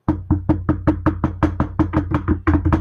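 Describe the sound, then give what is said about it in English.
A rapid, steady series of about a dozen knuckle knocks on a wooden surface, fairly loud, each hit hollow and resonant, with no voices. “Hopefully, knock on wood.”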